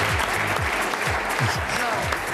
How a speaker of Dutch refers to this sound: Ja, ze, ze juichen nog even mee in de studio.